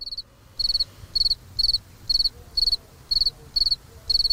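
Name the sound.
crickets chirping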